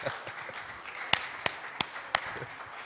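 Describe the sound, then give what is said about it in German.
A few sparse hand claps for the women, four sharp, evenly spaced slaps in quick succession over a steady hiss of background noise, more like a lone clapper than full audience applause. “Gebt den Frauen Applaus, dann vielleicht machen sie es uns diesmal, oder?”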